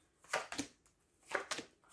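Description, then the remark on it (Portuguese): Tarot cards being shuffled and laid out for a reading, heard as soft, crisp papery slaps and flicks arriving in two quick pairs with a pause between, fairly quiet, with no talking. “Eu vou fazer então o lançamento que é suposto para vocês.”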